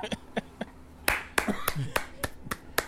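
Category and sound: sound effect, clapping sound effect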